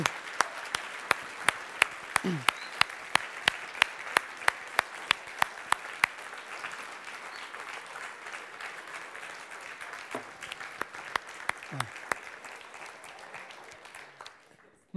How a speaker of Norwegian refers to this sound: Kanskje vi gir dem 15 sekunder. Skikkelig klapp for den jobben som de gjør.